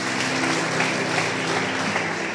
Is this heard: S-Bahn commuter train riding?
no